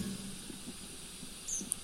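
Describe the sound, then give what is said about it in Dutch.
A tree pipit gives a couple of brief, thin, high-pitched call notes near the end, faint against a steady background hiss, with no talking. “Maar het is een gewone boompieper achteraf gebleken.”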